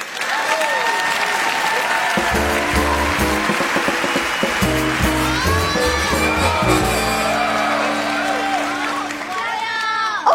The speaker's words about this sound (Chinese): 来，让我们掌声有请小沈龙。